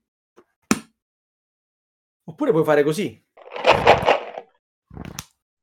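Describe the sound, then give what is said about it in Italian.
A thick hardcover book, a copy of Isaac Asimov's Foundation Trilogy, is opened at random and slammed shut with a sharp thud, followed by a brief stretch of talking and rustling, then another solid slap near the end. “Oh, Senti piano, quanto eh. sbatte.”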